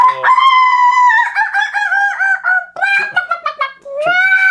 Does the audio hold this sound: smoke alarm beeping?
no